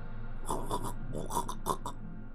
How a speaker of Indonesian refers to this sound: Darahku terkesiap mendengar suara erangan itu. Itu suara Victor. Sesuatu sedang terjadi padanya.